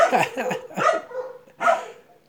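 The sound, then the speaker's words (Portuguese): A dog barks several times in quick, uneven succession, then once more after a short pause; the barks are fairly loud. “Cala a boca, cachorro.”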